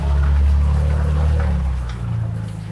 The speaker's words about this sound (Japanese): あ、今ね、ちょっと車が近づいてきてるんで、はい。ちょっと通るまで待ちたいと思います。